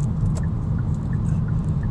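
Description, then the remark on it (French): Heavy road traffic east of an interchange rumbles steadily, a dense low drone of cars and engines filling the scene with a few faint higher tones passing over it, no voices present. “Euh, circulation assez dense quand même euh, à l'est de l'échangeur en jour en ce moment.”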